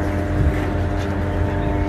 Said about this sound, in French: Euh, dans le ciel, les drones israéliens poursuivent leur ronde.